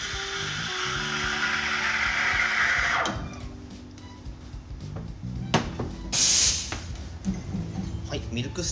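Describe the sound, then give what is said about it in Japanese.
A loud, steady hiss of an espresso machine steam wand as a barista froths milk, shifting after a few seconds into a softer, gurgling hiss with faint chirping and brief spurts as the wand strikes the milk surface and draws air into it to make foam. “今チリチリチリっていう音がしたと思うんですけれどもここでバリスタはスチームバンドでそのミルクの表面を叩くっていうか表面に空気を取り込んでで泡を作っていくんですね”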